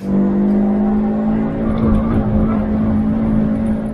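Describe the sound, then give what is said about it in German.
A five-cylinder sports car engine with 500 Nm of torque runs loud with a rich, throaty drone, its pitch rising slightly midway as the revs climb, then holding steady. No voices are heard. “Ähm, also viel Qualm an der Kette mit einem sensationellen Klang, nach wie vor der Fünfzylinder, über den sich alle Klangfetischisten dann äh, freuen.”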